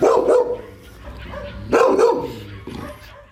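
A dog named Ahil, being trained to go to Ukraine, barks loudly, a few sharp woofs spaced irregularly over a few seconds, with no voices around it.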